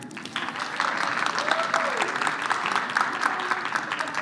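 A crowd claps steadily for about four seconds, a dense, even patter of many hands with no clear individual beats, fairly loud throughout.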